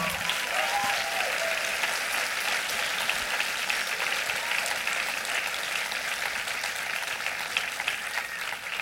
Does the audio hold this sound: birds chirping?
no